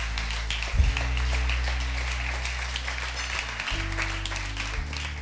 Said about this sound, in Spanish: ¿Cuántos pueden decir amén y darle un fuerte aplauso a su Dios por esto?